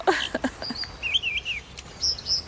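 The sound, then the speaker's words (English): An American dipper sings a quick, varied song of high warbling whistles and sharp chirps, clear over a steady rush of stream water. “the dipper is one of the very few birds that sings in winter, and it's a beautiful, complicated song.”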